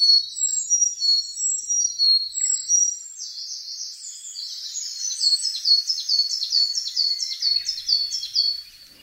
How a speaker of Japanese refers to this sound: おととしの初夏の森ではエゾムシクイとミソサザイがよく鳴いていましたこのほかヒガラウグイスなどの声も聞こえます